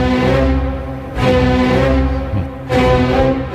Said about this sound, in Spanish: ese disco que tienes ahí, John, ahí en el, en el tocadiscos, que es la, el cuarto movimiento de la Sinfonía del Nuevo Mundo de Dorak